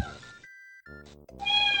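A female cat meows several times in quick succession, fairly loud, with drawn-out, whiny cries that rise in intensity toward the end. No one speaks.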